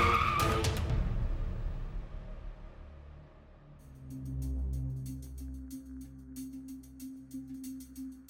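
A Chrysler car skids on a bend of a mud-covered road after days of heavy rain, ending in a ditch, with a brief, loud screech and rush at the start. A low engine rumble then drones on alongside scattered clicks and rattles, with no one speaking.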